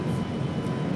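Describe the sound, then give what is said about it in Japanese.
A model airplane's engine drones steadily in the background as it flies or returns behind the speakers, a continuous buzzing hum that holds an even level for the whole moment without pauses. “ちょうど後ろで飛行機が飛んだのか戻ってきたのかちょうど高がしてたんですが”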